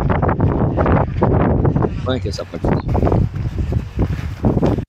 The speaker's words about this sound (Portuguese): Porque bate muito vento.